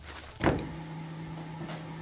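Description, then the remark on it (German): A small water turbine in a small hydroelectric plant runs with a steady, low mechanical hum and a constant whirring tone, preceded by a brief surge of rushing noise near the start; it is moderately loud. Water from a reservoir flows downhill into the turbine, which delivers 15 hp at full water flow. “Das ist das Geräusch von der Turbine.”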